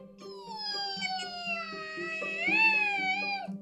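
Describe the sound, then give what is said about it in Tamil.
A voice imitates a fly's buzz with a steady, drawn-out droning hum for several seconds. It wavers slightly and rises in pitch toward the end, delivered fairly loud with no other talk. “இப்போ ஈயோட இது”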